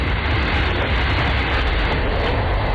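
A train rolls steadily along the tracks of the Trans-Siberian Railway, a constant, loud rumble with a dense rushing roar and no voices.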